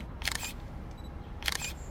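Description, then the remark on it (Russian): Two crisp mechanical camera shutter clicks, each a quick double-snap, spaced about a second apart over a low, quiet background hum, as someone who liked the camera is photographed at his request. “Ему почему-то понравилась моя камера, и он попросил его сфотографировать.”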